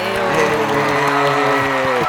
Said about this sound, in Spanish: Un aplauso para ah,